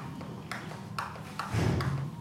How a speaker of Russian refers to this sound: Под звук чьих-то каблучков о бетонный пол и стук массивных дверей